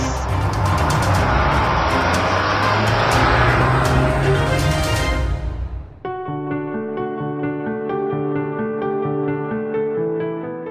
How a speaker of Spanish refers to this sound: Ha llegado el momento de encender motores.